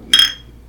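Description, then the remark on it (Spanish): A single bright clink of beer glasses holding a light lager of 3% alcohol by volume, touching in a toast, sharp, ringing briefly before fading into quiet. “Ok, salud. Salud.”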